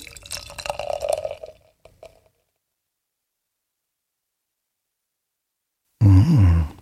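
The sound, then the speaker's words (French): Beer is poured at arm's length into a glass with a bubbly, gurgling splash for about a second and a half, trailing off into a few drips, then silence before a brief loud, low vocal hum. “Attention, je verse.”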